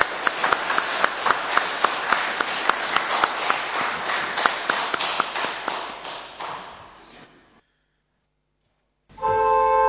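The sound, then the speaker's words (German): An audience applauds two musicians for their musical performances at a church service, the clapping falling into a steady, even rhythm before gradually dying away into silence; a sustained musical tone then begins at the very end. “Und ich denke, beide haben einen Applaus verdient für Ihre musikalischen Leistungen.”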